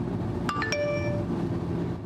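A phone's text message alert chimes once as a quick run of three bright, bell-like tones at rising pitches, the last ringing out briefly over a steady low rumble. The message is a traffic message from the Norwegian Public Roads Administration (Statens vegvesen) saying the road over Hardangervidda is open.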